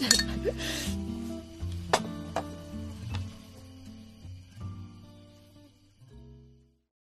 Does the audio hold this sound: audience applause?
no